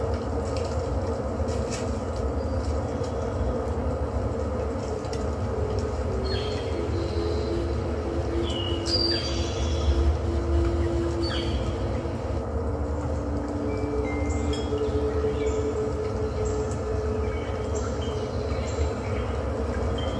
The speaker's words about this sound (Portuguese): Sinta o vento nesta floresta. Ouça os pássaros, as árvores, Escuta o vento batendo nas folhas, balançando as folhas.